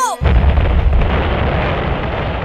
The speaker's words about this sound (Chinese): 嘣的一声，哦哦，青蛙妈妈的肚子爆掉了！